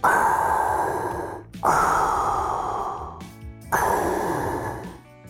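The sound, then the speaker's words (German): Heavy, airy breathing into cupped hands in front of a Rode NT 2000 microphone in a studio: three long, loud rushing exhales in a slow rhythm, each followed by a brief pause, with no talking. “Da wir so etwas leider nicht in unserem Studio haben, Spenden sind gerne willkommen, haben wir vor dem Rode NT 2000 in unsere Hände geatmet.”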